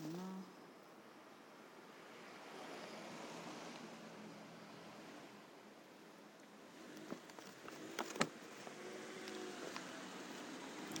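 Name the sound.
road traffic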